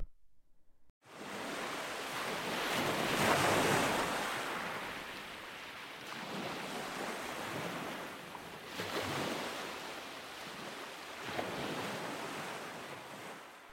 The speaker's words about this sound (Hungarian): El is indul a nyílt tenger felé és nem sokkal azután, hogy elhagyja a kikötőt, elkezdenek érkezni a hullámok. Egyik kisebb, a másik nagyobb.